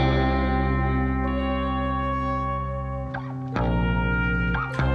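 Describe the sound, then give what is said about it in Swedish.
A dense electronic music track with sustained droning tones, heavy effects and distortion, plays loudly and continuously, with brief dropouts and abrupt shifts near the end. “Det var … från albumet …, tror jag det uttalas.”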